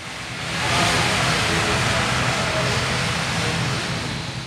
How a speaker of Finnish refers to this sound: Medellinin lentokentällä odottaa helikopteri. Se on nopein tapa päästä sademetsässä sijaitsevaan Manden kylään.